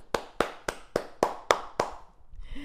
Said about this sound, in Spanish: Wow, qué fuerte. un aplauso